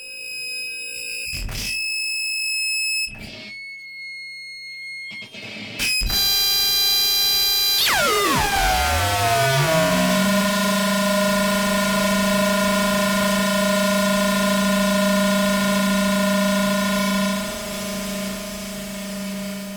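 Harsh Japanese noise music, loud and relentless: choppy stuttering bursts of shrill tones, then a dense wall of static with pitches sliding down into a steady low drone under a high whine.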